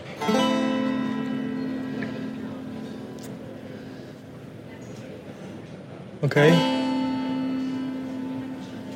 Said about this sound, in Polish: Ten pociąg chyba odjeżdża i przyjedzie chyba nas zaraz.